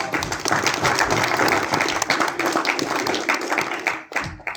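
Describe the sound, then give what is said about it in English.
Audience applause and clapping for everybody who spoke, a dense, steady wash of many hands at moderate loudness that thins out abruptly near the end. “So, anyway, let's give it up for everybody.”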